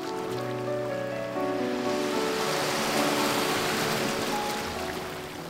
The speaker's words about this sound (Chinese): 我们听着二仁溪河口涨潮时的河水声。